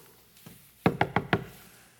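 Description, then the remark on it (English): Four firm knocks on a wooden door in an even rhythm, fairly loud, preceded by a faint softer tap, with no voices present. “I'm knocking on the door as you said to knock.”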